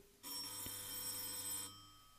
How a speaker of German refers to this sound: Während die beiden über Weihnachten sprachen, um den Lockdown zu vergessen, klingelte es an der Tür.